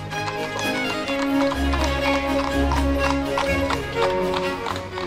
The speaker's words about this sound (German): sehen ja auch Droschken, also Pferdekutschen, die ja, das alte Meißen fahren. Dass sich hier auch die Tradition, die wir ja aus Wien oder anderen äh, Altstädten kennen, hier etabliert hat. Die fahren also durch die Altstadt